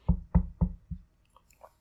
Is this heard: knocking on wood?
yes